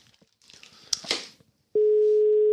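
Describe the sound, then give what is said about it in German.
Some clattering, clicking handset noise gives way to a loud, steady telephone ringing tone, a single pure electronic pitch that holds without a break until the end, as a phone call is placed to someone in Düsseldorf. “Äh, Telefon Joker. Jetzt geht's los.”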